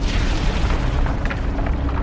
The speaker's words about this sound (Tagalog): Paalis na sana ako nang biglang makarinig ako ng malakas na dagundong.